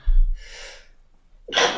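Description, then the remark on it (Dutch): A single sneeze, fairly loud: a breathy intake of air, a short pause, then a sharp explosive burst of breath. No one speaks. “Gezondheid. Gezondheid.”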